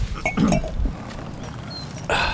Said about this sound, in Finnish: Runoilija saa punaviinipulloa auki. Joo, kun mä vasta temperoin tätä.